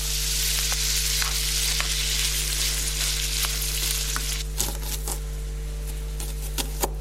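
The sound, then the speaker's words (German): Diced bacon sizzles steadily in a frying pan while cooking pasta with spinach, a dense, continuous crackle with scattered sharper pops and spits, fairly loud, with a low steady hum underneath and no talking. “Und es gibt auch noch Speck, Deine Würfel. Die habe ich schon in eine Pfanne reingemacht.”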